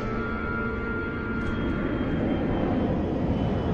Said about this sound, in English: As his plane comes into land, Charlie looks out over the deep bay of Williamstown, which has a huge cruise ship moored offshore.